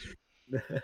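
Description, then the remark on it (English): A short, sharp sneeze bursts out, followed after a brief pause by a voice speaking or laughing. “Bless you.”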